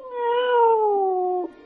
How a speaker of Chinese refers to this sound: 猫咪在火炉前喵喵叫着